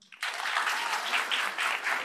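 A burst of audience applause, given as a vote on whose opinion about fame is best, starts abruptly and carries on steadily: a dense wash of many hands clapping, fairly loud, with no voices over it.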